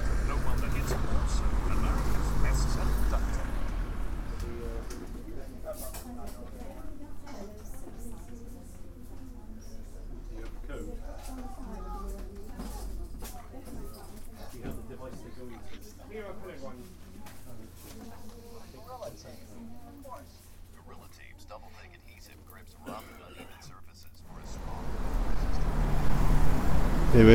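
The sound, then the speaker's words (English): Busy street ambience on Union Street, with the broad rush of passing cars at the start and end, while a quieter middle stretch carries indistinct voices, pigeons and lighter outdoor noise. “So we're, we're going to take a trip down Union Street”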